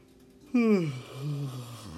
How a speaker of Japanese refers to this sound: またあくびが出ましたすいません